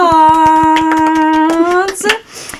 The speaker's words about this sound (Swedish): Applåd!